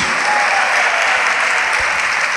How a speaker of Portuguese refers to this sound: Vamos aplaudir ao nome de Jesus.